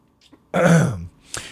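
human body sound, throat clearing

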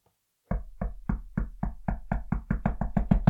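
impact, knocking on a door

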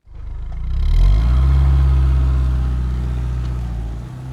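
vehicle, car accelerating away

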